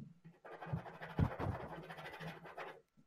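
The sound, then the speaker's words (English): A pen scratches firmly across a board in a few quick, rough strokes, fairly loud, crossing an item off a list, then stops; no one speaks. “You heard you it here, folks. You heard it scratched off the docket.”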